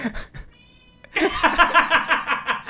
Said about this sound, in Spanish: Miau